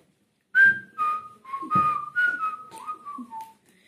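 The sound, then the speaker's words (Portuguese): A person whistles a short tune of about eight clear notes, moderately loud, with no talking, the melody stepping downward toward the end. “E também adoro muito assobiar.”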